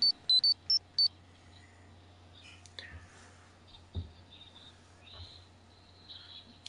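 A Morphin chime sound effect: four quick, loud, high electronic beeps within about a second, followed by a low steady hum with a few scattered faint clicks and no talking.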